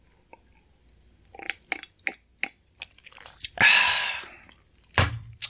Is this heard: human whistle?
no